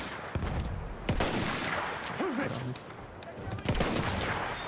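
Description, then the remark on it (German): Video game gunfire in a battle, as the player shoots an enemy off his horse and kills the horse: a few sharp, loud shots cracking out at irregular intervals over a dense, noisy battle backdrop, with a brief voice sound in between. “Vom Pferd geschossen.”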